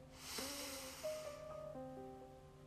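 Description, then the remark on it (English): A soft, airy deep inhale through the nose, taken before praying a rosary, swells and fades over about a second and a half, quiet, with gentle sustained instrumental tones continuing underneath. “As we begin, let's take three deep and cleansing breaths, breathing in through the nose”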